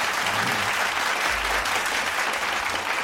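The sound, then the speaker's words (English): A steady burst of applause from many hands for a nephew's birthday, dense and loud throughout, with no voices standing out above the clapping. “clap that up”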